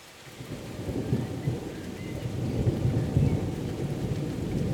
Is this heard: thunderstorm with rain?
yes